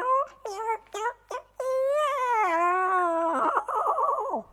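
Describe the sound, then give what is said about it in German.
A voice imitates a cat meowing: a few short, quick mews followed by one long, drawn-out, whiny meow that wavers and trembles before fading, loud. “Und mit einem Satz ist sie aufs Fensterbrett, hat sich noch einmal kurz umgedreht und miaut.”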